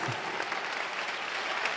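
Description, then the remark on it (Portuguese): A church audience applauds steadily, a dense wash of many hands clapping at once throughout, loud with no pauses. “E está chegando mais, igreja. Vamos aplaudir mais.”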